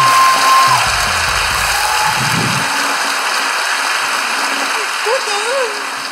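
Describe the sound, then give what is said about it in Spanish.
Steady applause from a sizable audience for the show Hablando Huevadas, a dense crackling clatter of clapping that fills the whole stretch, with some muffled voices and a brief whoop near the end. “Un fuerte aplauso para Hablando Huevadas, que ya es una religión.”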